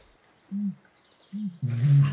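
A male bird on a pond sings in three low, muffled, booming notes: two short hoots spaced apart, then a longer, louder call with a rough, breathy edge.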